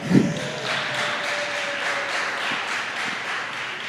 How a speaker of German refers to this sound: Jawohl, da kann man klatschen.